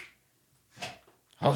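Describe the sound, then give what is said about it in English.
A female dog gives two short, low grunts, one in the middle and a louder one at the end, separated by quiet. The sounds are fairly soft, with no talking. “Oh, she got a good grunt.”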